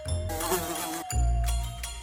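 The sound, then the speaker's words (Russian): A housefly buzzes, its steady droning hum wavering in pitch as it flies around a room, moving from windowsill to table, wall and light fixture, briefly cutting out for a moment before resuming louder. “Как и все мухи, она садилась то на одно, то на другое, с подоконника перелетала на стол, со стола на стену, со стены на светильник, со светильника обратно на подоконник.”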